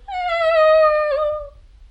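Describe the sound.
A voice imitates the squeal of a rubber chicken soaring through the air after being shot from a bow: one long, loud, high-pitched whine that slides slowly downward for about a second and a half, with no talking over it.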